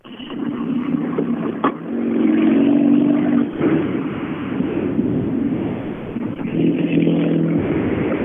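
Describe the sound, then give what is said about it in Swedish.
A Ford Fiesta rally car engine roars loudly for several seconds, its buzzing drone rising and dropping in pitch with a few abrupt shifts, like gear changes, and no voices over it. “Eh, den här Fiestan kom nu,”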